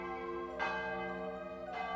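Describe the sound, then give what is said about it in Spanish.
A church bell rings with rich, lingering overtones, struck twice about a second apart, each toll swelling over the hum of the previous one. No voices are present. “pero cuando el acertijo ya casi estaba terminado, desatadas las tripas espejadas de la caja, fue consciente de que el estómago le daba unos vuelcos tan violentos ante el sonido de la campana que podrían llevar sonando media vida.”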